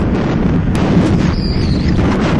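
Loud, continuous strong headwind buffeting a microphone while travelling at 70 km/h, a dense low rumble with gusty roaring that never lets up, overwhelming, with no voices.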